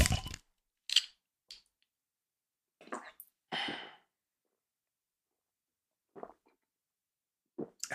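Clinks and clicks as a Beck's beer bottle is opened, ending in a short fizzy hiss, followed by a few scattered handling sounds. No one speaks.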